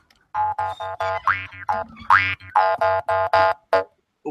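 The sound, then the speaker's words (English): A jaw harp twangs in a quick rhythmic pattern of about a dozen plucked notes, with a steady low drone and sweeping, boingy vowel-like shifts in pitch, fairly loud. “It's a, it's a, it's a jaw harp.”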